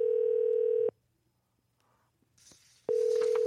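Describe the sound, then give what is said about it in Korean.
A telephone ringback tone as a call is placed to a participant who does not answer: a steady, mid-pitched electronic buzz lasting about a second, a two-second pause with faint rustling, then the next ring begins, loud and alone with no talking. “지금 한번 전화 연결 해보, 해봅시다.”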